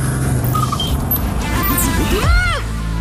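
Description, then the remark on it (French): A car engine roars loudly, revving up in a quick vroom with its pitch swooping up and back down over a steady low rumble. “dès que vous entendez From Vroom entre deux titres.”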